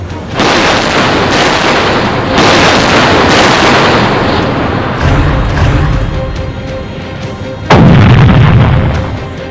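Heavy naval artillery fire from British warships, gradually concentrating their fire on the battleship Bismarck, booms out in a loud, rolling barrage, with several broad blasts overlapping and one sharp, powerful report near the end, without any voices.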